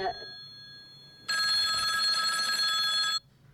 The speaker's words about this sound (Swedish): Eh, det skulle vara kul om någon ringde bara för att vi kunde få utvärdera ringsignalen. Det ringer, det ringer. 30 sekunder exakt.